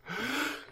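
sneeze

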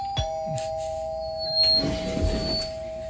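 doorbell ringing

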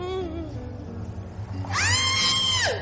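woman's scream

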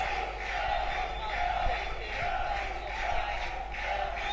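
crowd shouting a name

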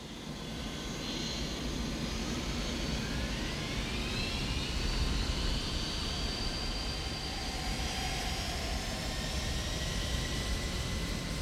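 airplane taking off

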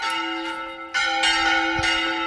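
church bells ringing

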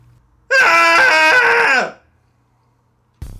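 group cathartic scream

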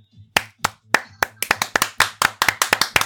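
applause

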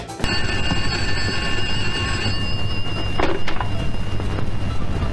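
telephone ringing

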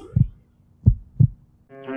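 heartbeat sound effect

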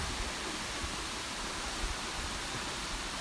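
waterfall rushing water

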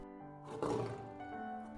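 lion roaring

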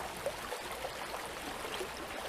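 flowing river water

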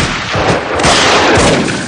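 gunshots

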